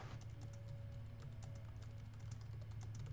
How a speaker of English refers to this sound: He's typing.